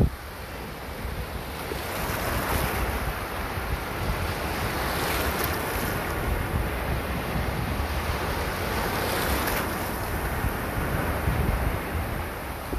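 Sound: ocean waves at night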